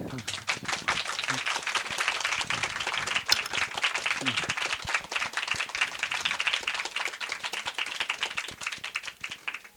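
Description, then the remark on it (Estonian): An audience applauds the panelists at the end of a panel discussion, a dense patter of many hands clapping at a fairly even loudness for the full length, with a few faint voices briefly audible underneath near the start. “nii et äh, nende mõtete ja selle tundega, et lähme nüüd midagi tegema, tahaksin ma selle paneeli lõpetada ja teha suure aplausi meie panelistidele.”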